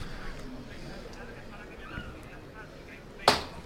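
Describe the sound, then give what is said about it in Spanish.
A single sharp, ringing knock from the knocker hammer of the Hermandad de El Plantinar's processional float rings out near the end, loud against a low, steady murmur of a crowd. “Y suena de nuevo el martillo.”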